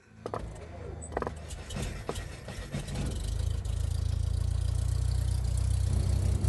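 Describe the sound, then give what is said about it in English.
The engine of a rickety old two-seat airplane flying over the Nevada desert sputters with a few clanks, then settles into a steady, loud, low droning hum that holds to the end. “Soon you're flying over the Nevada desert in a rickety old two seat airplane.”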